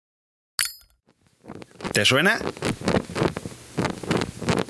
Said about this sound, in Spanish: Caliente, caliente. Es el encendedor más famoso del mundo.